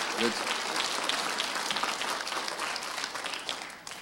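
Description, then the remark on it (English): An audience applauds a woman who came to the morning service, steadily for about four seconds, a dense, even wash of many hands clapping at a moderate level, with a brief voice early on and fading slightly at the end. “Let's give her flowers.”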